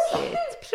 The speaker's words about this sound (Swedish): prosit. Det är pollen. Ja. Förlåt.